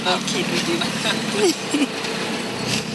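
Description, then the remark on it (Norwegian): Steady, dense rumble of idling cars and buses packed tightly together in a Nairobi traffic jam on the way into the city, with muffled voices faintly murmuring underneath. “Bilene og bussene står tett i tett.”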